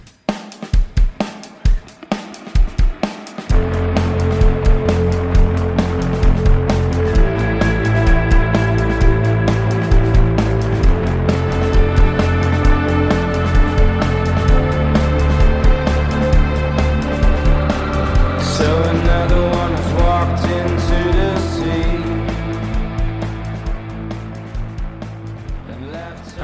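A band's music starts with a few sharp drum hits, then swells into a loud, steady wall of sustained chords and droning tones that holds for the rest of the track.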